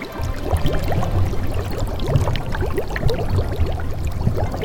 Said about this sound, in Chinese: 听听这水的声音，它们从四面八方蜂拥而来，聚集在一起。